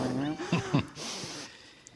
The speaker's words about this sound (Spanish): bueno, eso que suena por ahí, el gato, el gato Brembo. Si esto, se, corta, es el gato que ha tirado un cable o algo, que está aquí.